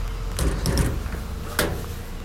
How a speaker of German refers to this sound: so ein Lieferdienst. Deswegen ist es gerade so laut. Normalerweise ist es nicht so bei uns.